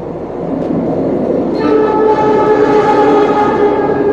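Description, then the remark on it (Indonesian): A train rumbles past, a steady low roar with a long sustained horn blast joining in midway and holding to the end, no voices heard. “Karena lumayan lumayan ini, lumayan jauh, ada kereta lewat.”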